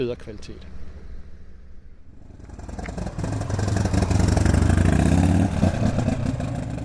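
A man rides his motorcycle into the harbour of Rödbyhafen on a bright sunny day; its steady droning hum swells from quiet to loud over a few seconds before holding at a rumbling, slightly fluctuating level.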